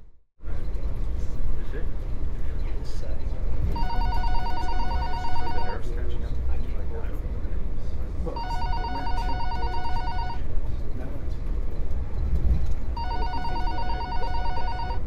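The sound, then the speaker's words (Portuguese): A mobile phone ringtone rings in three evenly spaced two-second bursts of bright electronic tones, fairly loud over the constant low rumble and clatter of a moving train. “Ou então, se o telemóvel estiver em silêncio, pelo menos que o tenham à mão quando aquilo toca.”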